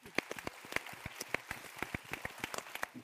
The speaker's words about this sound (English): So, ladies and gentlemen, let's give a big round of applause to the moderator, Holger Volland, and the panel.